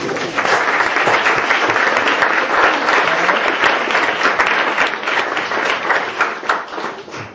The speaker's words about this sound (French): applaudissez-vous vous-même d'être ici.